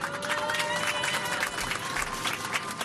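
A crowd gives a sustained ovation, dense steady clapping from many hands filling the whole stretch at an even, fairly loud level, with faint background voices mixed in.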